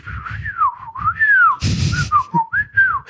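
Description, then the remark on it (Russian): A voice whistles a warbling birdsong imitation of the singing bird in a phone's 'relax' siren, with swooping tones that rise and fall over about three seconds, broken midway by a short breathy hiss. “Ты можешь даже на телефоне включить сирену, и там может быть типа «релакс сирена», и там такая птичка поет.”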